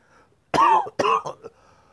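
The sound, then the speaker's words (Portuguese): A pair of loud coughs from the throat in quick succession, the second trailing into a short throaty rasp, with no talking around them. “Desculpe, estou dando uma tossidinha aí, mas é da garganta.”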